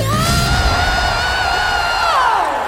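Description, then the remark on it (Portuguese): A legion of men roar a loud, sustained battle cry together, voices rising in pitch and swelling before tapering off, powerful with no other sounds. “Solta o um grito, legião!”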